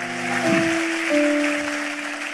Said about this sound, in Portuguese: Vamos aplaudir, vamos ficar em pé.